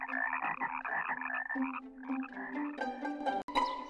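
A frog croaks continuously and loudly, a rapid, buzzy, throaty warble that pulses without a break for several seconds, with no talking.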